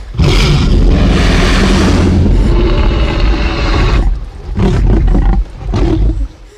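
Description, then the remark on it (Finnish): A huge Tyrannosaurus rex roar film sound effect bellows for several seconds, rough and rumbling, then breaks into two shorter snarling bursts. No one speaks. “ihan vaan sen takia, että saahan se apina näyttämään hurjemmalta, niin ne teereksit kuulostaa semmoiselta nuhaselta chihuahualta.”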